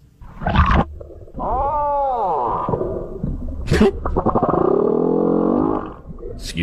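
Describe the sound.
Deep, moaning humpback whale calls: a rising and falling tonal sweep, then a long, drawn-out droning groan. A brief laugh and a short spoken word come just before them.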